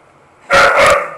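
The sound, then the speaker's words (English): Two quick, loud barks fired off back to back with playful energy as two dogs play and run downstairs in a house, then the sound cuts off. “Dogs just ran down here. I should have closed the door.”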